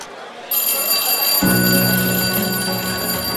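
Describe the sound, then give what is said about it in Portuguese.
A shrill school siren at Escola Veracruz, the town's only public secondary school, at seven thirty in the morning, cutting through the buzz of the corridors. It starts ringing after a brief quiet moment, a loud, steady, piercing tone that holds without a break, with a deeper buzzing layer joining partway through. “Uma sirene estridente corta o zum zum zum dos corredores mal iluminados da Escola Veracruz.”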